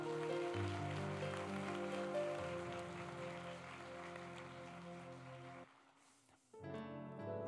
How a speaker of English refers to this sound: Can we clap our hands for just a moment?